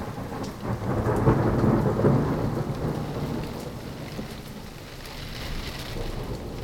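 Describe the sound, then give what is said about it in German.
Steady rain pours down with a low rumble of thunder rolling underneath, loudest early on and then settling into a constant wash of falling water. No one speaks. “Ein bisschen Hausarbeit, ein bisschen Ballast ins Tagebuch abwerfen, das alles hilft durch die Regentage.”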